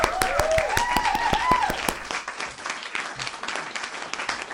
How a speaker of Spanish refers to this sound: Felicidades, licenciada. Aplausos.